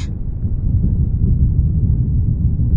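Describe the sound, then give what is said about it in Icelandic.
A steady, muffled low rumble of rain and thunder outside, continuous and fairly loud for the full three seconds, with no crisp rain patter and no voices. “Inn í höllinni heyr ég enni rigningun og þrjumunum úti.”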